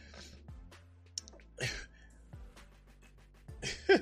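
A few wet, nasal sniffles come in short bursts spaced a second or two apart, as if someone is congested and needs to blow their nose.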